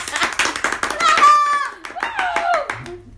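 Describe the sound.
A crowd applauds with steady, dense clapping to welcome a guest introduced as a graduate in dance, while voices cheer and call out over it. The applause thins and tails off in the last half second.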